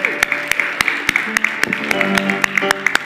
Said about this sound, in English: Let's applaud this day, okay?